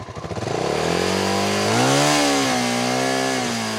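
A loud engine revs up from a sputtering idle into a sustained high whine, its pitch climbing and wavering for several seconds. No one speaks.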